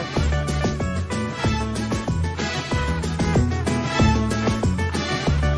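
An upbeat, catchy party song plays loud, driven by a steady thumping beat and bright repeating melodic hits throughout; its Spanish chorus sings about liking beer and throwing a party at home tomorrow.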